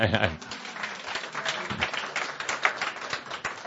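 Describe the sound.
An audience at a talk claps steadily after the announcement that philosophy is dead, a dense crackling patter of many hands that keeps up at an even loudness throughout, with a brief voice at the very start.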